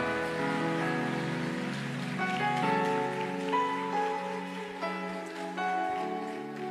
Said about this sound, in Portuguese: Oh, você pode aplaudir mais forte a Ele.